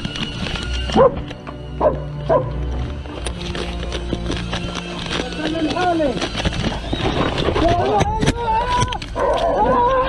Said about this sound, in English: I'm not so sure the sex of this dog, but this is an IDF uh, warrior at work here we go. Watch this.